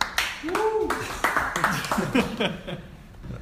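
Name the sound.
weak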